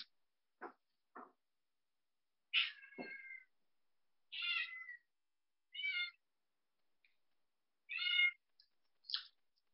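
A cat meows repeatedly, five or six short, clear calls spaced a second or so apart, with a couple of soft clicks at the start and no talking.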